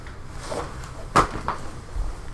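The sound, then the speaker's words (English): A door clicks and bumps, one sharp knock followed by a softer clack a moment later, over a low, steady hum with no one speaking. “Oh, door.”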